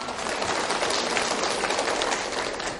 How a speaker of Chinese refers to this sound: 身教，来给这位朋友掌声鼓励一下。